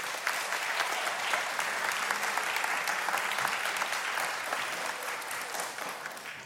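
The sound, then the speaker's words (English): Sustained applause from a sizable audience, a dense wash of clapping that holds steady throughout and tapers slightly toward the end, with no talking over it. “Give yes. another huge round of applause.”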